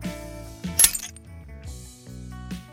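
A hammer strike played in reverse and pitched down 12 semitones: ringing metallic tones swell up and cut off sharply, with a brighter clinking peak near the start and softer repeats after it, moderately loud.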